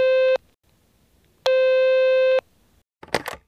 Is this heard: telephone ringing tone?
yes